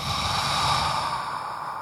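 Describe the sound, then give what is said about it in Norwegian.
A slow, steady breath exhaled through an open mouth with the jaw dropped, emptying the lungs during a breathing exercise, a soft continuous airy rush lasting about two seconds, fairly quiet, with no talking. “slipper utpustet ut gjennom en åpen munn.”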